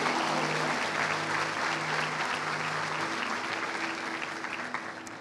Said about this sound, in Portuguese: Se você crê nisso, dê uma salva de palmas a Jesus. Aleluia.